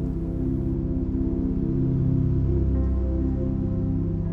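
Steady summer rain falls without pause, a soft, even wash of sound with a low, humming undertone and no voices.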